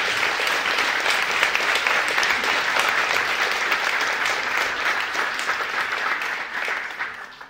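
An audience at a cultural programming evening of the Beaux-Arts de Paris claps steadily, a dense, continuous wash of applause that holds strong for several seconds before starting to thin out near the end.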